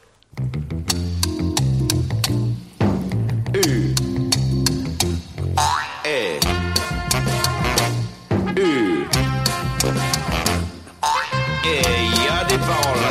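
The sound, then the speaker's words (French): A bouncy, upbeat intro of a comic French song with plucky rhythmic accompaniment and playful sliding, boing-like effects, full and lively throughout with brief pauses between phrases. “on écoute donc …, très politiquement correct, par …”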